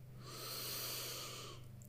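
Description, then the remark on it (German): A single slow, deep breath drawn in through the nose, an airy hiss that swells and fades over about a second, soft, with no one talking. “Jetzt schnauf wieder ein bisschen tiefer ein.”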